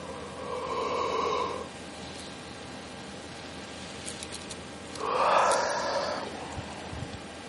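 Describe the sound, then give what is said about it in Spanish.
Two slow, deep breaths, each a broad airy rush that swells and fades over about a second and a half, separated by a few seconds of quiet hiss. Fairly soft, with no talking. “Sigue respirando.”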